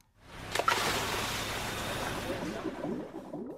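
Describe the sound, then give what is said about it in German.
A scuba diver's breathing underwater in the sea while exploring: a sustained, dense rush of bubbling and gurgling that swells in quickly and rumbles on steadily, fairly loud, with no voices. “Mal abgesehen vom Ein- und Ausatmen des Tauchers, von dem Geblubber also, das Menschen produzieren, wenn sie das Meer erkunden, auch ansonsten geht es ganz schön laut zu unter Wasser.”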